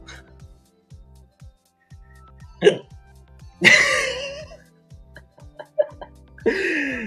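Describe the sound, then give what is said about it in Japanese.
Persistent hiccups that will not stop: several abrupt hiccups jolt out at uneven intervals over a low steady background hum, each a sharp voiced gulp, with a breathy laugh-like burst mixed in. “しゃっくりが止まらぬ事件。”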